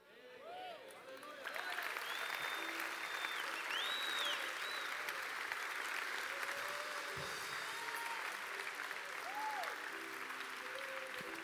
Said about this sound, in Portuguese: Você pode aplaudir o Senhor mais forte. Aplauda, aplauda o Senhor.